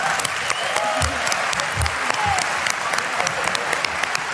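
An audience claps steadily, a dense wash of many hands with scattered sharper claps standing out, sustained at an even level throughout.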